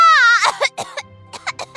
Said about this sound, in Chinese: 小猴子用力地喊出了这句话，不过。被自己的口水呛得咳嗽了起来，班上的同学都哈哈大笑。